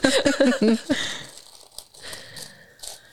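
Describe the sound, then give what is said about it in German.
Tissue paper, used to wrap online orders at Fischhof, crinkling and rustling in soft, irregular bursts of crisp crackles, fading to quieter scattered rustles with a few brighter crinkles near the end; a brief voice sounds at the start. “Mögt ihr auch Seidenpapier so gerne mit dem ganzen Geknister?”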